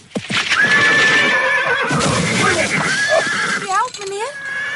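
A horse carrying a rider whinnies loudly, its shrill neigh wavering and trailing off in quick pulses, over a busy clatter of hooves scrambling as it slips on a layer of ice on the road.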